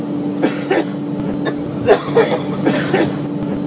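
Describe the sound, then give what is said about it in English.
A man on an airplane coughs hard and repeatedly in a string of harsh, hacking bursts, heard over the steady mechanical hum of the aircraft. “That's somebody coughing their brains out.”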